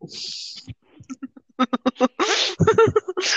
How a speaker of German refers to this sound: ich habe einfach ins Mikrofon gefurzt.